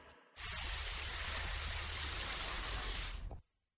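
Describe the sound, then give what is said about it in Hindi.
A can of aerosol cockroach-killing insect spray hisses in one steady, loud burst lasting about three seconds in a kitchen, then cuts off abruptly. No voices or other sounds accompany it. “cockroach को मारने वाले स्प्रे की बदबू अब पूरे किचन में फैल गई थी पर इतनी मेहनत के बाद सिर्फ एक केवल एक ही कॉकरोच से उस दिन हम पीछा छुड़ा पाए थे”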